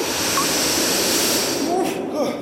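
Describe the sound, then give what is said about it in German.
A loud, steady rush of air from an inhalation sweeping through the inside of a nose, a roaring hiss lasting about two seconds with faint whistling tones gliding over it. “Da kommt nämlich gleich schon der nächste Einatmer.”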